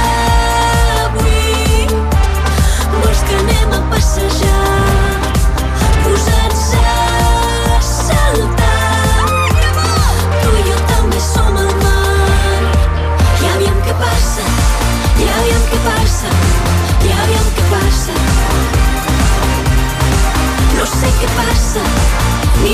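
A pop song plays loud and continuous, with a steady pulsing bassline, a driving beat and layered bright instrumentation filling the whole stretch.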